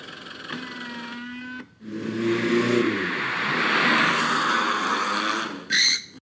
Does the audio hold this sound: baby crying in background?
no